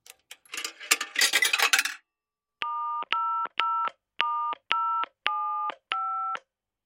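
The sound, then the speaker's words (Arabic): A coin clatters into a public payphone in a phone booth with metallic rattling, then seven distinct touch-tone beeps follow in a steady, evenly spaced rhythm as a church's phone number is dialed, clear with no voices. “ولذلك حفظ رقم هاتف الكنيسة المكتوب على البوابة ثم ذهب إلى إحدى كبائن الهواتف العامة ليتصل بها”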